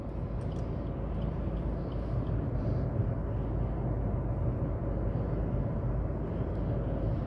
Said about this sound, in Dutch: Ja, sorry, ik ben aan het autorijden, hè, dus het is moeilijk uitzetten.